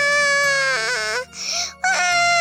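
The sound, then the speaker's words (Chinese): A voice imitates the crying of Guaiguai Yang, a lamb character in a children's story who cries after Waiwai Tu the rabbit accidentally steps on her while lining up for exercises: a loud, drawn-out wail, high and wavering, breaking briefly before a second shorter sob-like burst. “排队做操的时候，因为抢着站到最前面，歪歪兔不小心踩到了乖乖羊，乖乖羊哇的一声就哭了，”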